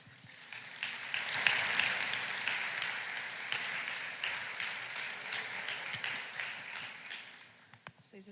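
An audience claps in a dense, steady wash of applause that swells in the first two seconds, then holds at a fairly even level with scattered sharper claps before tapering slightly.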